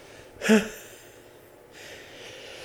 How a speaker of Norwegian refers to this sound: Ja, da prosit, og der tror jeg du eksploderte Eksploderte trommehinnene til samtlige som hørte på med headset.